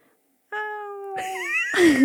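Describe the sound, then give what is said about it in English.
A person's voice imitates a cat with one long, drawn-out meow that bends and wavers in pitch, fairly loud, with nothing else in the background. “All right, give me your cat voice.”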